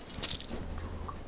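household object, keys jangling

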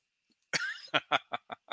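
human body sound, sneeze

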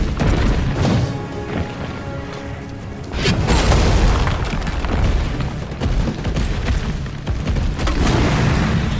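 sound effect, shotgun blasts

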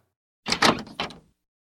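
household object, room door opening

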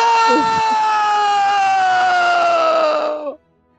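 human body sound, person screaming in pain

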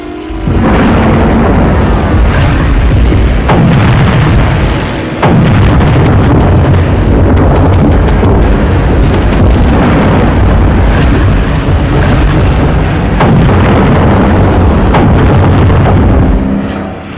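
sound effect, bomb explosions

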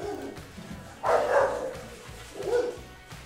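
animal, dogs barking

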